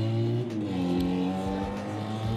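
Loud engine noise from motorcycles, a steady harmonic drone with shifting pitch, roaring by outside, filling the whole moment with no talking.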